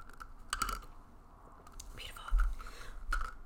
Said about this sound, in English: If you're not watching the video version, I'm just drinking out of a straw and in my big old wine glass. You can hear that. A little ASMR action. You hear those ice cubes? A little more ASMR.